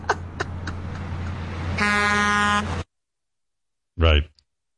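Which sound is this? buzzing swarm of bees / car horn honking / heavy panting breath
car horn honking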